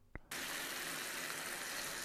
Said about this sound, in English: This is the sound of burgers cooking in a pan.